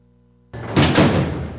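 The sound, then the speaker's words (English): A heavy metal detention center door for juvenile offenders in Georgia slides and slams shut with a loud, echoing clang, followed by a lingering resonant rumble. No one speaks. “It's the sound of detention center doors closing on Georgia's juvenile offenders.”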